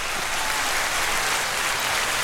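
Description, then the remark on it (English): A crowd cheers and applauds in a steady, dense wash of clapping that holds the same loudness throughout, with no talking over it. “Let me see, does the crowd go crazy? Yes.”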